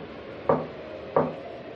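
Two dull, hollow knocks on a dilapidated old wooden door on a quiet night, spaced about two-thirds of a second apart, each with a short woody resonance, over a faint steady background hiss.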